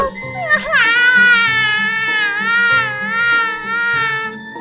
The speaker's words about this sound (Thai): ลูกหอยทากจึงได้ร้องโฮออกมา